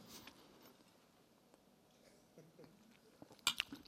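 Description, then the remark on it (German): Someone chews food: soft, irregular wet smacks and clicks, quiet at first and growing busier and louder toward the end, with no talking. “Mit vollem Mund.”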